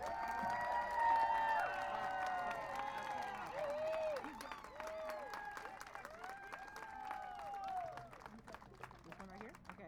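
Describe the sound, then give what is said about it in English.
A large rally crowd claps steadily while voices whoop and cheer over it, applauding Antioch Mayor Lamar Thorpe and City Council member Monica Wilson; a dense, lively burst of applause that holds for several seconds before thinning out slightly at the end. “Make some noise for these elected officials who've shown real climate change leadership by banning oil and gas drilling in the city of Antioch.”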